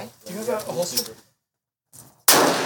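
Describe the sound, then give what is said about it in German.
A voice speaks briefly, then after a short pause a single loud gunshot cracks sharply at a Lightfoot Militia weekend shooting practice, its harsh blast and echo ringing out to the end. “Und sie ist eine gute Schützin.”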